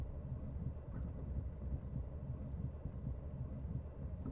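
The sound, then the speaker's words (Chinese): A steady, low rumble of a train running on tracks on a quiet night, dense and continuous with faint rhythmic clatter throughout, no voices present. “在这样安静的夜晚，感觉心跳都要和火车声融为一体了。”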